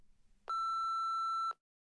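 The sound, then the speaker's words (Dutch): A single steady electronic beep, loud, lasting about a second, like an answering machine tone signalling the start of recording as a woman calls a man to leave a message, preceded by faint low background noise. “En ze belt hem en spreekt zijn antwoordapparaat in.”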